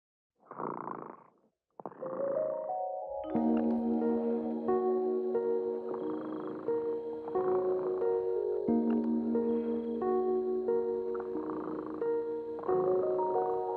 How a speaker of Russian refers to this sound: Кот Ремота сладко спит песенку свою урчит.